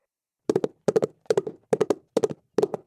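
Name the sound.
horses galloping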